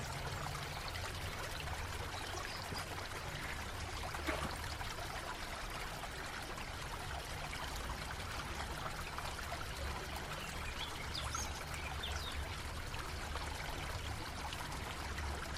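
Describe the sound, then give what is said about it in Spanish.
A river flows steadily, its water rushing and babbling in an even, continuous wash of sound that stays constant throughout, with no voices present. “Con curiosidad, acércate al río y observa el agua que fluye por él mismo.”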